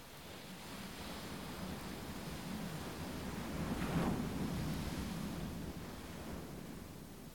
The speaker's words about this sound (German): Du lauscht dem monotonen Rauschen der Wellen.